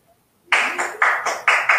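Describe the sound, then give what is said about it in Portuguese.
Applause for a dance performance bursts in abruptly after a moment of silence: a dense, hissing wash of clapping that swells and dips in quick waves, staying loud to the end with no voices. “Que sorte, Bom, aplausos aí também, aplausos aqui.”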